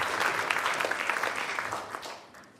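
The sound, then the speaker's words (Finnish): An audience gives the worship team a big round of applause while taking their seats: dense, steady clapping that fades out gradually toward the end. There is no talking over it. “Annetaan vielä meidän ylistystiimille järkyttävän isot aplodit samalla kun istut, sä, sä pystyt siihen.”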